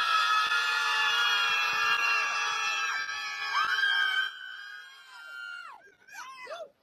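A crowd of people in New York screams in unison, a sustained wall of high-pitched voices that slowly trails off into a few scattered, wavering shrieks at the end.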